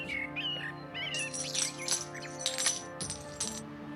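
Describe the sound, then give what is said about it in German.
Coins clink and jingle in several bright, metallic bursts, fairly loud, as ten copper coins are handed over as payment, over a steady humming background with some chirpy tones at the start. “Ach, weißt du, ich denke, zehn Kupferlinge kann ich entbehren.”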